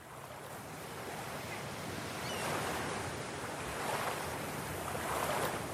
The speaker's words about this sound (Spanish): no, en silencio no, más bien con las olas del mar, ese acompañar profundo del que puede conectar, luego de desconectar con esta sociedad tan apurada.